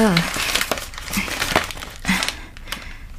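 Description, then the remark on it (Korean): A plastic medicine packet crinkles in several quick, uneven bursts of rustling, with short murmured vocal sounds in between. “이거 아시죠? 아, 그니까 뭐냐고. 그날 운남 씨가 삼킨 약이요.”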